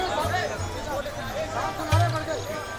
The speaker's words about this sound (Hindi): मंदिर के बाहर धीरे धीरे भीड़ इकट्ठी होने लगी